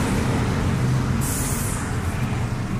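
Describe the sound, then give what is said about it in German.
A bus idles with a heavy, steady engine rumble, then its air brakes let out a sharp, loud hiss lasting under a second before the rumble carries on. “Warte kurz auf den Bus.”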